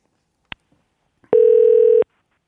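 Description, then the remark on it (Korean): A brief click, then a steady electronic phone ringback tone sounds alone for under a second, a clean, continuous outgoing-call tone with no voices, as a radio show host phones a listener. “전화 한번 걸어보겠습니다.”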